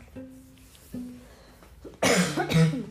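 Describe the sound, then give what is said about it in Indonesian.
Two harsh, loud coughs burst out near the end, following a quieter stretch with a couple of faint throaty sounds. “Sorry ya batuk-batuk guys.”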